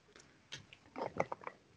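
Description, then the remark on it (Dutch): Someone takes a quick sip of water: a few soft, wet mouth clicks and a small swallow, quiet and brief, with no talking. “Hm, ik met even een slokje water.”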